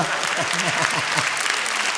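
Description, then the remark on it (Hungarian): A steady wash of crowd applause from around 500 people, dense and even throughout, with voices briefly audible underneath in the first second. “Most tapsolnak 500 neked”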